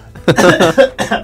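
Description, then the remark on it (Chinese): A short run of harsh, raspy coughs, about three bursts in quick succession, fairly loud with no talking over them, coughing done on request. “你再去咳嗽。”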